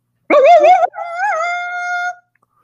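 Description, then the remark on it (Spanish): A jackal-like howl, used as a signal that someone is approaching, rings out loud with no other sound: first a short wavering, quavering cry, then a longer steady wail that trails off. “una señal parecida al aullido de un chacal indicó a Eric que alguien se acercaba”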